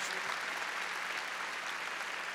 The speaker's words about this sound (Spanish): Ahora, abremos palmas fuertes a nuestro Señor. Gloria a Dios.